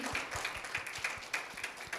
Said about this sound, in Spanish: Aplauso.